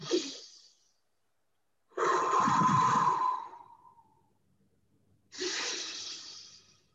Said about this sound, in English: But your goal is then to restore nasal breathing as you're in the cold. So as you get over that first 20, 30 seconds, you then go.